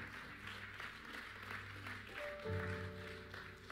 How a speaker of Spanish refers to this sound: Puedes darle un fuerte aplauso, papá, por esto.